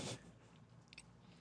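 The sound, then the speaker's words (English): Someone chews a cookie: a brief crunchy bite at the start, then quieter, soft mouth sounds and a couple of small clicks, with no talking. “I just have a cookie in my mouth.”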